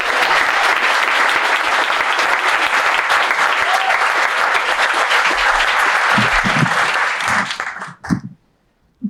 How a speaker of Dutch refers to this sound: Mag ik een keihard applaus